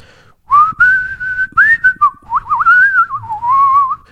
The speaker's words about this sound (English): you know, I mean, that's not an actual whistling song, I guess, but you know, that skill always came naturally to me